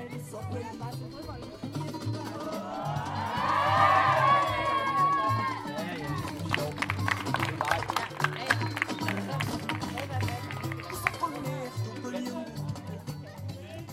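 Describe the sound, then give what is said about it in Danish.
A lively outdoor crowd of volunteers, children and young people of all ages in a large circle, dancing, shouting and laughing together; a busy mix of voices with sharp rhythmic claps or stamps running through the middle. “De danser, råber og griner sammen.”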